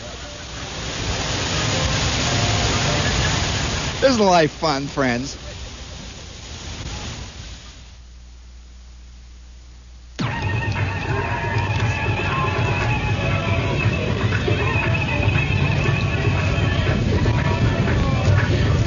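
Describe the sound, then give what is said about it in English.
The large outdoor Unisphere fountains splash and roar in a steady, loud wash of falling water. A man briefly speaks early on, and the rush drops quieter for a few seconds before surging back. “And now, while you sit there and listen to the sound of the Unisphere fountains, we will give you about 15 seconds, I'd say, to go into the next room and can complete whatever this makes you do, and we'll be right back.”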